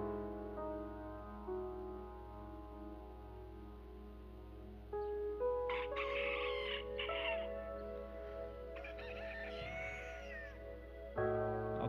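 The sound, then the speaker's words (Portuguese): A rooster crows twice, a few seconds apart, with strained, drawn-out calls, over a steady sustained musical drone that continues throughout. “Clarear da madrugada, o galo canta.”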